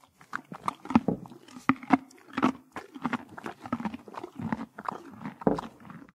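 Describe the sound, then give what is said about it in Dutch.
A horse chews a carrot, with loud, wet crunching bites repeating in an uneven rhythm and occasional soft snorts or breaths between them. “Ik denk dat het hier wel een paard kan zijn die aan het eten is.”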